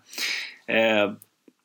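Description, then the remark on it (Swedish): A small female dog under a table lets out a sharp, breathy sneeze followed by a short nasal snort, fairly loud, then a couple of faint clicks in the quiet. “Jävlar vad hon snyter sig.”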